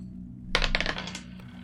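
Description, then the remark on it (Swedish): Dice are rolled for an ego plus survival check, clattering in a quick burst of sharp, bright clicks that tumble for about half a second and then settle, with a steady low hum underneath and no talking. “Om det är någonting som du skulle kunna säga om det här så är det någonting du kan få ut om du lyckas med ett eh, lätt slag med ego plus överlevnad.”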